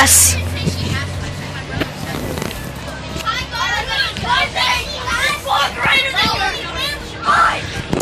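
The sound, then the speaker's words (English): A crowd of children shouts and chatters together inside a rumbling school bus, a lively overlapping babble of greetings saying hi over a low engine hum, loud. “He's gonna be with us today too, and the whole bus. Everybody, say hi, boy.”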